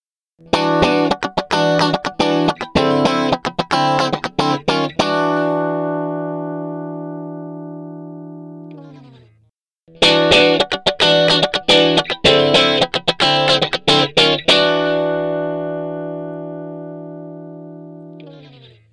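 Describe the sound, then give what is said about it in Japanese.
An electric guitar plays the same short strummed riff twice, each time ending on a long ringing chord: first with no effects, clean and dry, then processed with distortion and graphic equalizer settings in BP, without an amp simulator, brighter and grittier. No voices. “あの、ちょっとね、エフェクトを何にもかけてない音と、それからエフェクトをかけた音を2つ並べて聞いてみましょうか。”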